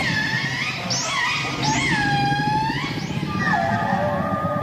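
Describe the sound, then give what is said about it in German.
Whale song underwater as whales communicate with one another: several long, gliding wails that swoop up and bend down, overlapping one another above a constant low, murky rumble, with no voices. “War ein Wahlgesang.”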